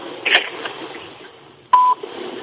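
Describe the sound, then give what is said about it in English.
A single short, steady electronic voicemail beep on a phone call rings out loud and clear over faint telephone-line hiss, preceded earlier by a brief soft dial-tone-like chirp; no one speaks. “Press the drop to the tone.”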